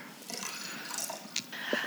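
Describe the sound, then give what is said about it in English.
Someone refills their glass for a toast, the drink pouring in with a soft liquid splashing and trickling that rises slightly in pitch as the glass fills, quiet, with no talking. “Well, I have no idea who to toast to maybe for our toast, I'm going to refill my glass here.”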